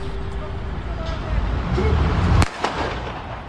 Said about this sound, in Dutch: En die schiet dan dus de 17-jarige automobilist dood. En dat is, nou ja... Met één schot? Ja, met één schot.